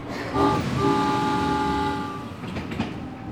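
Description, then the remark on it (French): A train whistle blows a sustained, steady tone over a low mechanical rumble, then fades as the train starts moving with faint rhythmic clacking of wheels on the track. “un coup de sifflet retentit, le train s'ébranla.”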